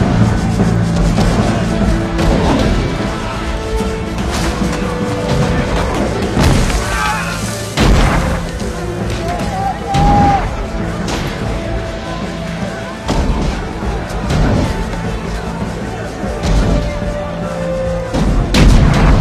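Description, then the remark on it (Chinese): Loud, dense sound effects of a large-scale siege battle: heavy booms and sharp blasts layered over a steady, rapid pounding of war drums, with sustained musical tones threading through the whole continuous mix. “战鼓，战鼓的节奏非常清晰啊，哒哒哒哒哒那种战鼓。”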